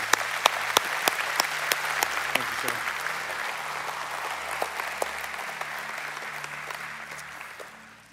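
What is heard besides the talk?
audience applause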